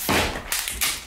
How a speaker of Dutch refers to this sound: Dat was de bas.